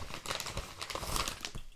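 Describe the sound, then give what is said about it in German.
Continuous crinkling and rustling of a bubble-padded envelope being handled while packing an item to send, with irregular crackly bursts throughout and no voices. “Kommt in den Umschlag wieder rein. Das ist ein Luftpolsterumschlag.”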